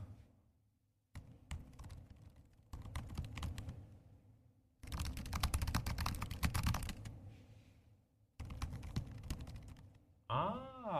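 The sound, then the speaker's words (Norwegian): Rapid typing on MacBook Air and Pro keyboards, first an Air, then a Pro, then an Air again, in several bursts of dense clicking separated by short pauses. No one speaks, and a brief warbling tone cuts in at the end. “Og da skal jeg først eh, ha lyden av en air, så en pro, og så en air igjen.”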